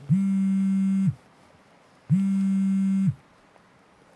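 A mobile phone buzzes on vibrate in two steady one-second pulses with a pause between them, a low, loud droning hum, with no one talking.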